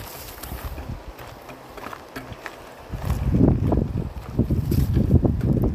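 Wind blows steadily outdoors beside the Kitkajoki river, rumbling and buffeting the microphone, growing into stronger, gusty bursts halfway through. No one speaks.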